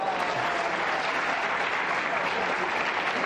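An audience breaks into steady applause, a dense, even wash of many hands clapping at a constant loudness for a few seconds with no voices standing out.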